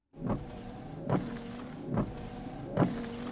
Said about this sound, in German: Und es gibt auch noch einen Scheibenwischer.